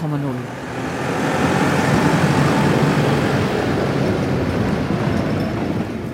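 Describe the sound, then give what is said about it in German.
A farmer drives a tractor past the Alpenblick in the remote village of Wolfisberg, its low, chugging engine rumble swelling after the first second into a loud, steady mechanical drone that eases off slightly toward the end. “Ein Bauer fährt mit dem Traktor am Alpenblick vorbei.”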